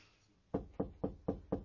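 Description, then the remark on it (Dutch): Five firm knocks on an office door in a steady, evenly spaced rhythm, clear after a brief quiet moment, with no voices. “U hoeft hier nooit te kloppen.”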